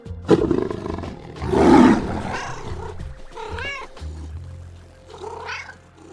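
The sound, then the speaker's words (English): A big cat's deep, loud roar swells near the start, followed by a couple of shorter, higher meows and yowls from a cat, with no talking. “So, today, as we celebrate International Cat Day and raise awareness of cool cats from around the world, let out a meow and a roar for these fantastic felines.”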